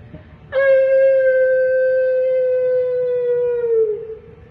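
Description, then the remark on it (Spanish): A single long wolf howl rises abruptly and holds a steady, clear tone for about four seconds before sliding down and fading, loud over a faint low rumble. “hizo el lobo y pasó de largo junto al árbol tras del que estaba escondida Mandolina”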